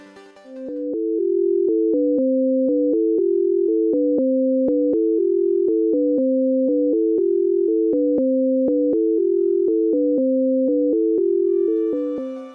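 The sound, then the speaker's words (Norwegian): Two steady tones, one high and one low, alternate in a quick regular pattern, an octave illusion, swapping back and forth for several seconds at a constant, moderate loudness with no voices. “I følgende klipp vil de som er høyrehendte, høre den høyeste tonen i det høyre øret, mens dere venstrehendte som regel vil høre den i venstre.”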